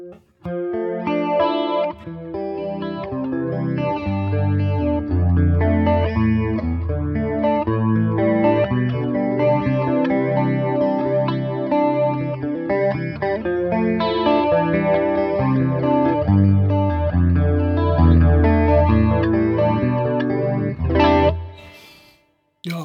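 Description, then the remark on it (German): An electric guitar plays a steady chordal riff through a modulation effects pedal, its tone shimmering and warbling with chorus-like movement and a slight edge of grit, loud and continuous until it stops abruptly. “Ähm, man kann halt hier mit dem ähm, ja, mit dem ersten Schalter, also mit dem, mit dem ersten Parameterregler, ähm, kann man den Ton je höher der Wert, desto komplexer ist die Modulation.”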